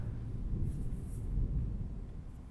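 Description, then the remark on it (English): A low, steady rumble of thunder rolls on for a few seconds, deep and muffled rather than sharp, with no voices over it. “It's ominous, thunder.”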